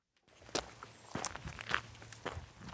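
Footsteps hiking along a wet, spongy trail after rain in New York's Adirondack Mountains, climbing up to a remote pond called Cooper Kiln: a steady walking rhythm of soft crunching steps, moderately loud with no voices.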